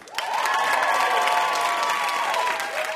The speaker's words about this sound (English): Big hand for our wonderful VIP, W. Kamau Bell.